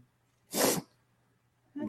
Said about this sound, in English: Excuse me for the sniff.